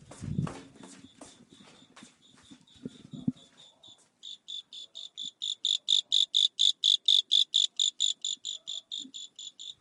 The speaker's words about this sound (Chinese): 大家也听到了蛐蛐叫了